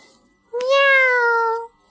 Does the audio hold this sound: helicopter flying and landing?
no